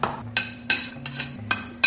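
Chopped onion being scraped into a pot of boiling chicken broth: five evenly spaced metallic scrapes and clinks of a utensil against the pot over a low, steady hum, with no talking.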